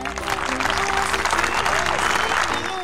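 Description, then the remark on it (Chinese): A burst of applause, dense and steady clapping from many hands that stays loud for about three seconds, with faint sustained tones running underneath. “掌声走一波起来喽！”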